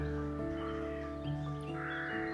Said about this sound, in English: just passing underneath a rookery.